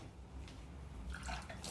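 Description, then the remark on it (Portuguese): A short burst of water splashing and dribbling as drinking water spills over someone's clothes after they are startled, fairly soft, with faint trickling and drips and no talking. “Aí minha mãe veio me dar um susto enquanto, na hora que eu vim beber água. E aí derramou na minha roupa inteira.”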